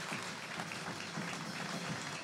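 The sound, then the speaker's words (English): An audience at Shore Christian Church applauding during a morning service, giving the Lord a big hand clap: dense steady hand clapping that holds at an even level throughout, with no voices standing out above it. “Give the Lord a big hand clap if you would this morning.”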